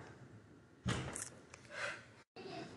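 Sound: door being pushed open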